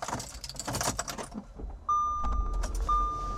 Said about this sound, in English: More car noises.